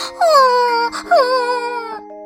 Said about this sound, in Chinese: 粉红猪一听，呜呜的哭着跑开了。